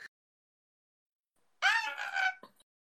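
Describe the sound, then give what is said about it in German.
A person voices a pitiful, wailing scream: a single drawn-out cry of under a second, loud, with a brief trailing breath after it and silence on either side. “Ah, du hörst einen ziemlich so einen erbärmlichen Schrei.”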